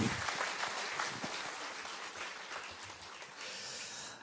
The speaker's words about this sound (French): Voilà, on peut les applaudir, on peut les saluer chaleureusement.